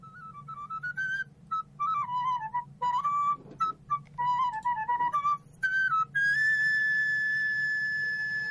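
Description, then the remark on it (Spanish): A quena, an Andean flute, plays a breathy, wandering melody of short phrases with brief pauses, ending on a long sustained high note, over a steady low background hum. No one speaks. “Ahora estamos escuchando de fondo una quena, así que me voy a callar unos segundos para poder escuchar más a fondo este instrumento.”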